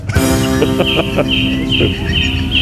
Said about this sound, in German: Vögel zwitschern lassen. Jetzt bin ein ich schon weiter Ja, Entschuldigung. Erstmal ein Zwitschern.